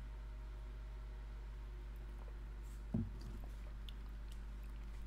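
A single brief sip of barley water midway through, followed by a few soft wet mouth clicks, all over a low steady hum.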